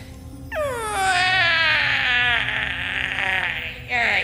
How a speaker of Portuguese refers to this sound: Então, vocês ouvem alguém bocejar.